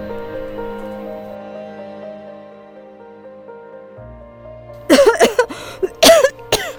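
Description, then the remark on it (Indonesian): Several harsh, loud coughs from a woman wearing a face mask burst out in quick succession near the end, over a low sustained musical drone that plays steadily throughout. “Aduh, maafkan ya, Ibu malah batuk-batuk banget nih yang batuk-batuk.”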